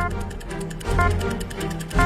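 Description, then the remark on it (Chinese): A quiz answer countdown timer ticks in a steady, even rhythm, each sharp click repeating at regular intervals over a low background hum, with no voices. “答题倒计时开始”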